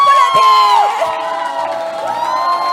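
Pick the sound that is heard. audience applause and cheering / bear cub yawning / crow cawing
audience applause and cheering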